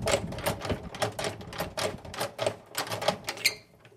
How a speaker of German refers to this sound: Hier sehen wir eine schöne alte selbstgebaute Honigschleuder, die ist also hier für drei warm.